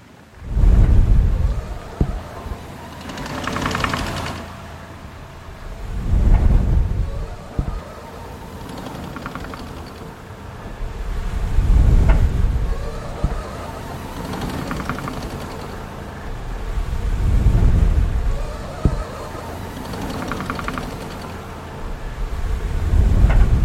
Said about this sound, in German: Und dann braucht ein Hochofen Luft, viel Luft, mit dessen Hilfe das Feuer ständig auf Temperatur gehalten wird. In Peitz gab es hierfür ein Doppelzylindergebläse.